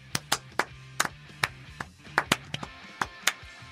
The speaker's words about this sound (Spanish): Aplauso de martes.